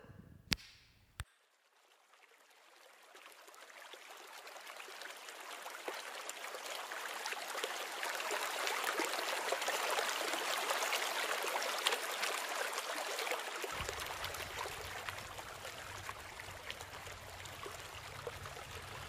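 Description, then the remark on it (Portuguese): A small stream, the Riacho do Navio, a small tributary of the Pajeú River in the Pernambuco sertão, flows and trickles steadily, a continuous wash of burbling water that swells slightly midway, with a couple of brief clicks at the very start. “O Riacho do Navio é um pequeno afluente do rio Pajeú, que atravessa todo o sertão pernambucano e, por sua vez, deságua no Rio São Francisco.”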